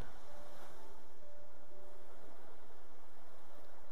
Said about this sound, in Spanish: Te invito a que te sientes en la arena para escuchar el ruido de las olas que vienen y van.